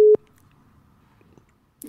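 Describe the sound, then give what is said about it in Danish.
A short, loud electronic telephone tone, a single steady beep cut off abruptly after a fraction of a second, followed by quiet line hiss and a faint clatter at the end. “Der er bare sådan en uh, telefonlyd, der lige uh, generede mit øre.”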